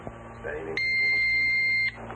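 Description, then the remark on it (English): A blood glucose meter's timer gives a single steady electronic buzz, signalling when to wipe the test strip, fairly loud, lasting about a second before cutting off abruptly, over a faint low background hum. “That's the sound when you're supposed to wipe your, your strip.”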